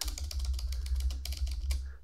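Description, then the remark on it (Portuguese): Rapid, uneven clicking of keys on a laptop keyboard, with short bursts of taps over a steady low hum and no voices. “Estou aqui na frente do notebook, na frente do teclado, aqui, ó.”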